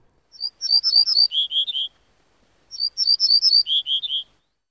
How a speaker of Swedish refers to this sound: Ortolansparven som vi hörde kvittra här lever på åkrar och har drabbats negativt till exempel av intensifierat jordbruk i vårt land, men jagas också av människor under sin flyttrutt, till exempel i Frankrike.